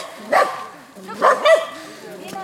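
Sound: dogs barking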